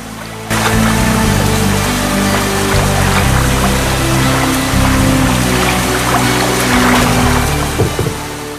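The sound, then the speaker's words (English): Rainwater rushes and churns loudly and steadily into Piglet's house during a storm after a brief quiet start, a dense, continuous gush with deep low rumbling underneath and no voices. “the water started filling into Piglet's house.”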